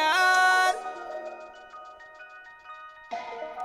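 A music track intro played on radio station CGMD 96.9: bright, bell-like synth tones, a loud chord opens, then softer sustained notes pulse in a steady rhythm before a fuller chord swells back in. No voices.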